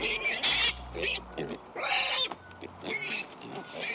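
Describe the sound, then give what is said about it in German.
Several young pigs grunt and squeal in quick, overlapping bursts, with shrill high-pitched cries breaking through low snuffling grunts, loud throughout the short stretch. “Auch ohne viel Technik lässt sich bei diesen Schweinchen erkennen, welche Emotionen gerade durch ihren Körper gehen.”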